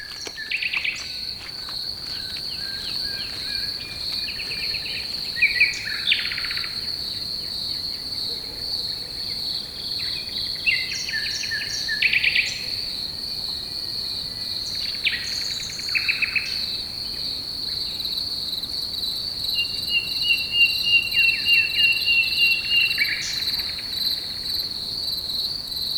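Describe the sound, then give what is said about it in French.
A dark forest ambience of steady, high-pitched cricket chirring, with scattered brief bird calls rising above it now and then. No one speaks. “Une forêt sombre et profonde.”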